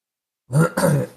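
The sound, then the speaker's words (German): A brief throat clearing in two quick bursts after a moment of silence, loud and rough with a low grunting edge. “Ja, also, sorry, ich muss mir ganz kurz husten.”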